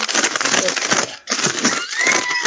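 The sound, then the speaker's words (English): Steady rustling and crinkling of paper fills the moment, dense and scratchy, with a brief pause midway before the handling resumes. “I, I hear a paper rustling.”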